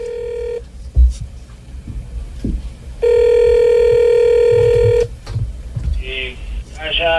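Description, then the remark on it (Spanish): A telephone rings for a call placed to President Santos, with long, steady electronic tones, one brief ring and then a sustained two-second ring after a pause, over a low murmur of background noise and faint voices. “yo también me acabo de enterar de que el equipo investigativo Os Populi logró captar una llamada muy particular que alguien le hizo al presidente a raíz de esto.”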